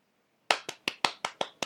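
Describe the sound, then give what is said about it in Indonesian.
Seven crisp hand claps in a quick, steady rhythm, starting after a short silence. Each clap is a sharp, bright slap that decays quickly, and no one speaks. “Ayo kita tepuk tangan dulu.”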